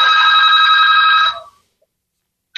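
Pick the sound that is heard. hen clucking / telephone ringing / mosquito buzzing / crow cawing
telephone ringing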